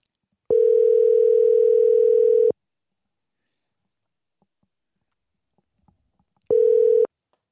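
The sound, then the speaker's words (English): A steady, buzzy telephone dial tone after a call dropped on a bad connection sounds for about two seconds, drops into several seconds of silence, then returns briefly. It's loud and clear, with no voices. “no, well, um, no, our phone hangs up because we have a terrible connection.”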